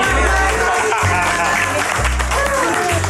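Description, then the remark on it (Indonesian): An audience applauds with a steady, dense wash of clapping that lasts the whole moment, while a deep, pulsing bass beat thumps underneath. “tepuk tangan dulu untuk kita semua ya,”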